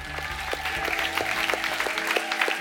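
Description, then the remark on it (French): An audience at the Église Paris Métropole applauds, dense clapping with a steady rhythmic pulse of sharper claps running through it, over sustained low musical tones, fairly loud and continuous throughout. “acclamation ce soir.”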